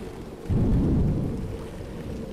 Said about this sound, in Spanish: En la lejanía se escuchó un trueno retumbar.